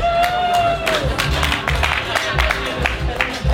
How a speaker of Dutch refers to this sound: De spanning is te snijden. waar we bang voor zijn, is dat het bouwwerk in elkaar stort. Maar het lijkt. Ja! Applaus!